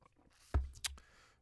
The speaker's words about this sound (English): sipping my coffee right now. And um All right, let me get to this shit. I'm sipping the coffee. You know, in the morning.